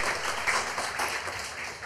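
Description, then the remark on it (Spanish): An audience claps for the name of the Lord in a dense, steady wash of applause, many hands blending into continuous crackling noise at an even, fairly loud level, with no voices standing out. “Aplauda el nombre del Señor y celebramos anticipadamente lo que va a suceder.”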